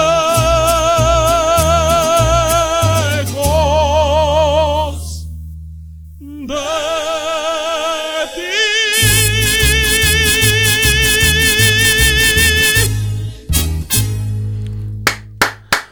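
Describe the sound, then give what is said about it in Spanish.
A Mexican song plays loud, a vibrato-rich melody over a bouncing bass line, briefly thinning out partway through before returning full and ending on a few sharp accents. It is played on a radio program, shared by a listener from Metepec, State of Mexico, to Brisbane, Australia. “desde la ciudad de Metepec, Estado de México, y compartiéndonos esta canción hasta Brisbane, Australia.”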